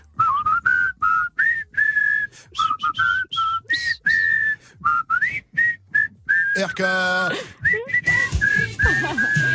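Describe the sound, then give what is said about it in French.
A group on the Good Morning Safran show whistles a tune in unison for RK, a bright melodic line of short phrases that repeats, then breaks into a noisy, laughing burst before the whistling resumes. “Ah, et vu que le thème du jour, c'est le sifflet, eh bien, on va lui siffler.”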